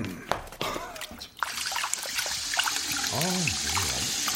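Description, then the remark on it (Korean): Someone urinating: after a few scattered knocks, a steady hissing trickle of liquid starts and runs without a break to the end, with a brief rising-and-falling vocal murmur over it. “아 근데 이 소변보단 당신이 하는 행동이 더 더러운 것 같은데.”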